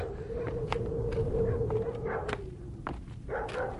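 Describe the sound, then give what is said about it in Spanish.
Dogs in a village across a dry, cracked plain bark sporadically at a distance, short sharp yelps scattered irregularly across a few seconds, over a steady low hum and rumbling background noise. “Se oye que ladran los perros y se siente en el aire el olor del humo y se saborea ese olor de gente como si fuera una esperanza.”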